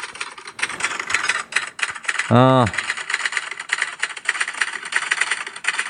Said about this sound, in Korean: 타자기죠. 예, 타자기가 정답이었습니다. 타자기 소리, 예, 오랜만에 한번 들려드리겠습니다. 예, 갑니다.